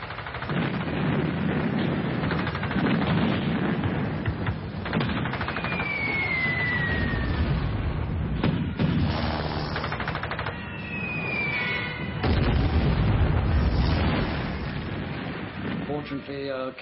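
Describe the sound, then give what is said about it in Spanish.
A loud air raid by six Luftwaffe aircraft attacking a ship around tea time, with continuous rattling gunfire, heavy bomb explosions booming at intervals, and falling whistles cutting through the dense, chaotic din. “Hacia la hora del té nos atacaron seis aviones y nosotros nos dimos la vuelta como siempre.”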